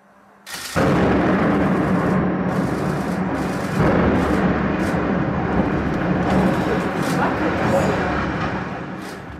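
A sudden heavy blast erupts after a brief quiet moment as an old, worn grey concrete high-rise is blown apart in a controlled demolition on a grey day in February 2014, followed by a long, loud rumbling roar of collapsing debris that slowly fades, with a second surge partway through.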